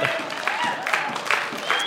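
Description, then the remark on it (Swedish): An audience in Skövde cheers and applauds together on Easter Day, a steady, dense wash of clapping mixed with raised, joyful voices that fills the whole moment without pause. “Ja, vi kan jubla lite till och vara lite glada.”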